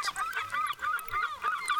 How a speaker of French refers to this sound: Et une plage, une plage magnifiquement magnifique, avec des baleines sur la côte et des crabes sous le sable, tel un champ de mines terrestres les mouettes chantent.